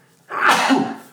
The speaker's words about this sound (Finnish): ups, Anteeksi. terveydeksi. Kiitos.